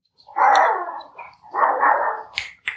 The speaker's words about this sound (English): If you hear the dog barking, that's the famous Zippy. Somebody's obviously driving by the yard right now,